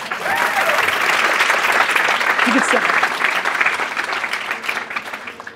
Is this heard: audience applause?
yes